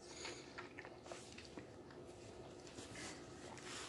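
Quiet sounds of a person sipping and swallowing water during a pause in speaking, soft wet gulps over a faint background hiss, with no talking.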